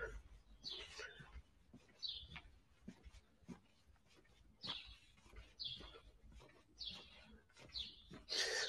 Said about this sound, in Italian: ama anche lui naturalmente il canto degli uccelli, ama tutti gli animali e non li mangia